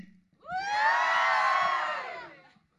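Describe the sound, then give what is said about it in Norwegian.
A concert audience in a school gym hall erupts in loud, high-pitched cheering and whooping in response to the singer, a dense wall of many voices rising quickly and holding for about two seconds before fading out. “Og publikum i salen, de svarer.”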